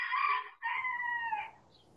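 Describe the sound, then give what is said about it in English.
A rooster crows loudly in a village, one strained call broken by a short gap into a longer drawn-out second part that trails off into quiet. “What? Rooster.”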